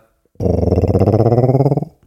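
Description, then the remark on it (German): A voice imitates a cartoon car driving away: a loud, buzzing vocal rumble with a fast, steady pulsing rhythm, like a revving motor, held for about a second and a half before cutting off. “Ich kann mittlerweile auch ein Comic-Auto, das wegfährt.”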